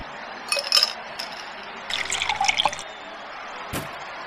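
A double whisky with no water pours and trickles from a bottle into a glass in two short bursts, with a light clink and a sharp tap near the end; fairly quiet, no voices.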